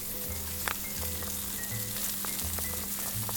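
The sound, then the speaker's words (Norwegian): Steady sizzling of fresh mackerel frying in a pan as it is browned to crisp its skin, a dense crackling hiss with scattered pops and a low repeating hum underneath, no voices. “Hører den deilige lyden av sånn suser i”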